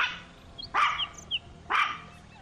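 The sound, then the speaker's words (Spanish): A female dog named Lulu barks twice, two sharp barks about a second apart, with faint high bird chirps in between and no one talking. “O mi perra Lulu.”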